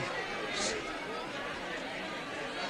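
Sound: crowd chatter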